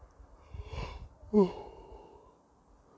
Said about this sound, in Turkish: Şu esneme girmesi araya çok güzel olacaktı.